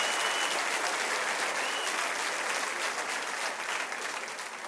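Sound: audience applauding and cheering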